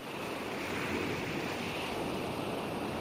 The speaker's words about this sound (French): Le son de la semaine, c'est celui des vagues.